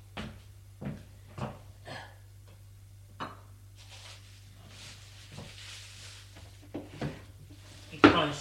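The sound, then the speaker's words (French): A wooden drawer being opened: a run of light knocks and rattles, a soft sliding rustle, then a sharp, louder clunk at the end, over a steady low hum. “dans un tiroir.”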